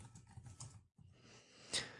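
Quiet, rapid tapping of computer keys, a short burst of typing that pauses briefly and then resumes with a sharper click near the end. No one speaks.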